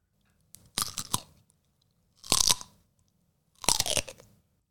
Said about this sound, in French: Le gros mouton frisé est allé chercher quelque chose à manger. Et voilà qu'il trouve. Savez-vous quoi un chou rouge bien caché sous la neige. Il mange le chou feuille à feuille.